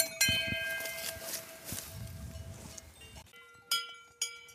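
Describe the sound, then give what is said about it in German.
Metallic cowbells worn by cows lying in the grass in the heat clank irregularly with bright, ringing overtones, a dense jangle at first that thins to a few sharper, separate clanks after a brief quieter gap. “Die haben jetzt auch jeder Glocken.”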